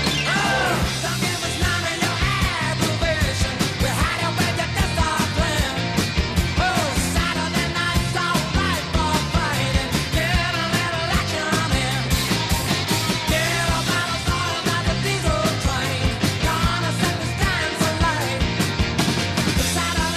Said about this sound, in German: Aber er hat auch ganz schön gerockt. Also hier zum Beispiel ….